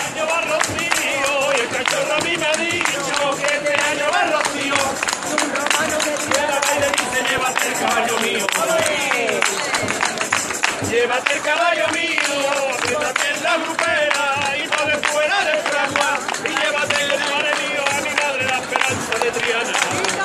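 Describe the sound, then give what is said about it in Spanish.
A group of pilgrims outdoors in the last stretch of Calle Pureza in Triana, heading out to the Tozano, clap steadily in rhythm while many voices sing together, loud, the clapping and chorus running continuously without a break. “Un grupo de peregrinos que vaya ambientándose en el último tramo de la calle Pureza para salir al Tozano. Mira, estos son los sonidos de Triana.”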